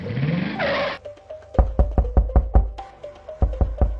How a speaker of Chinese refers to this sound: 敲了几下门后，门打开了。